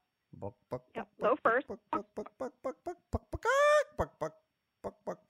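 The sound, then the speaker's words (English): A person imitates a hen's egg-laying cackle, the song a hen makes after the egg is laid: a quick run of short, clipped clucks, one long drawn-out squawk in the middle, then more clucks. The voice is fairly loud. “Let me try. It was like buck, buck, buck. So it's low first.”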